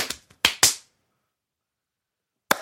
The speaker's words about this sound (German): So, mehrfaches Klatschen.